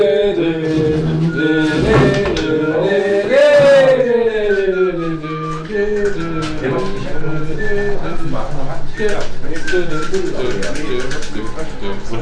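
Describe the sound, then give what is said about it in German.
A voice imitates a garage door opening in a lonely garage in the Bergisches Land, producing continuous creaking, cooing tones that slide up and down in pitch for about twelve seconds, loud. “sich das an, wenn das Garagentor aufgeht.”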